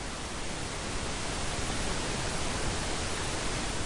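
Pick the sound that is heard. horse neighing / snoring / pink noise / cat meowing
pink noise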